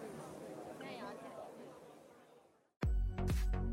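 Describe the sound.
A recording of the crowd at Ningxia Night Market: a busy outdoor crowd murmurs steadily, many overlapping voices blending into a dense hubbub for almost three seconds, then cuts out abruptly before a loud, unrelated burst of sound begins.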